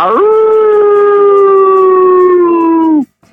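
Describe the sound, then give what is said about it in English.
A person lets out a loud, sustained wolf-like howl that rises quickly, holds a steady pitch for about three seconds, then cuts off abruptly. It's clear, with no talking. “I'm back. The wolf's back. I've been howling in the gym lately too.”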